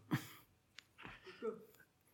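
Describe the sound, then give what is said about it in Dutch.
A quiet sip of water: a sharp intake of breath, a small click, then soft slurping and swallowing noises with no talking. “Even een slokje water.”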